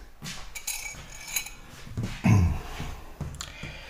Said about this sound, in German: Jetzt tue ich die Tasse wieder weg im Schrank, bevor mein Krater sie runterschmeißt und wir einige Scherben haben.